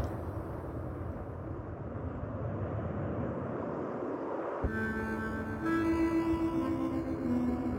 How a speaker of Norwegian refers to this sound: Jeg hører snøskuteren komme. Det er to stykker. Hører jeg de stopper, hører det går på tomgang. Hører at de roper til hverandre.